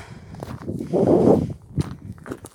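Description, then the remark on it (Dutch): Footsteps crunch along outdoors as someone walks up a small hill in the sun, a steady series of uneven steps with a brief rustling scuff in the middle, moderately loud, with no talking. “Ik ga even een bergje op, een heuveltje.”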